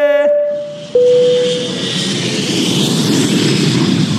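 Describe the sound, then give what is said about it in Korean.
An airplane taking off: a short tonal whine opens, then a loud, steady jet roar with a bright hiss takes over and holds for several seconds. No voices. “자 그럼 비행기 이륙합니다.”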